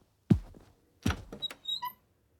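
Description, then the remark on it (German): A bedroom door, the last door on the left down a hallway, opens: a soft thump, then a second knock-like bump and a few clicks of the handle, ending in a brief high hinge squeak. No one speaks. “Gemeinsam gehen wir den Flur hinab zur letzten Tür links.”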